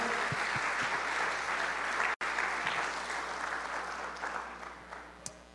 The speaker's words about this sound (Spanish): So like Santiago said, can we honor all of the volunteers? Como dijo Santiago, podemos honrar a todos los voluntarios, por favor. Un fuerte aplauso, por favor.